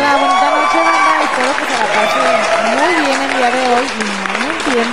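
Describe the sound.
A crowd applauds steadily for five seconds as a performer is introduced on stage, a dense wash of clapping with voices cheering and whooping over it in rising and falling calls.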